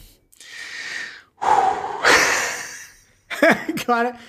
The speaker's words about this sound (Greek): Είναι οι ανάσες